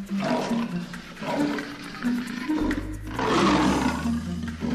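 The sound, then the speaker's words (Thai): Water splashes and churns in loud, rushing surges as a lion bathes in a pond, with a brief lull midway, while a low, throaty rumble runs underneath. “ราชสีกระโดดขึ้นจากลมได้ ก็ลงไปอาบน้ำในสระ”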